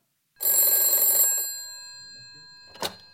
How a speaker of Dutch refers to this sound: Maar dan, om twee uur s middags, gaat opnieuw de telefoon.